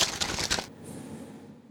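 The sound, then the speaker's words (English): Crisp rustling of notebook pages for under a second, a quick flurry of dry crinkles and flicks that then fades into quiet. “I'm gonna grab my notebook here and read it to, read it off to you. So pardon the rustling.”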